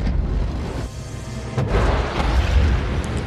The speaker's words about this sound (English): A literal explosion underneath goes off, millions of horsepower going off like thousands of the most powerful cars combined as the entire craft shakes and rattles.